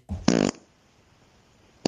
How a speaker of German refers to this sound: Ja, der ist, also schon so ein bisschen zurückhaltender. Ja. ja. Für mich wäre jetzt ein Furz Nummer 7, das sind mehr so zwei Ausrufezeichen.